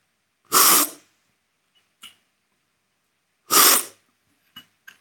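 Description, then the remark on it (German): Two loud, hissing slurps of coffee with lemon during a coffee tasting, a few seconds apart, each followed by faint mouth clicks and swallowing sounds in otherwise quiet surroundings. “Ich werde etwas schlürfen bin ja nicht der Verkoster von Haus aus.”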